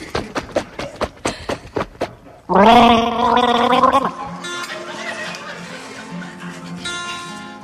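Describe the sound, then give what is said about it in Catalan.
A run of quick rhythmic gulps of water gives way to a loud, bubbling gargle lasting over a second, then a softer watery murmur with faint voices underneath. “Beu aigua?”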